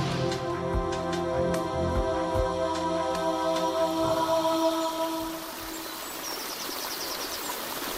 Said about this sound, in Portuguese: E na ilha, na Madeira, não correm rios. Mas corre a água das levadas.